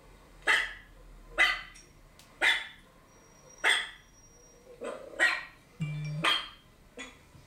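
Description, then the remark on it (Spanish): A dog barks repeatedly, about eight sharp barks at a steady pace, loud, with a brief growly note near the end and no one talking. “El cuarto ejemplo es que si nuestro asistente de voz detecta ladridos de perros, entonces recibiremos una notificación en nuestro teléfono para verificar la imagen captada por nuestra cámara.”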